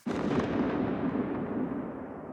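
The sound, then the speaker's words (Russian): The separate reflection layer of a tank gunshot sound: a heavy echo rolls out after a sudden onset, a dense low rumbling reflection that sustains and slowly fades over a couple of seconds, heard on its own without any voices. “Есть саб отдельно слой, есть отдельно хвост выстрела, отражение, немножко другое.”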